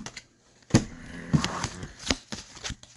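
Playing cards are shuffled and slid around on a tabletop, close by, with sharp clacks and soft rustling scrapes in an irregular rhythm. No one speaks.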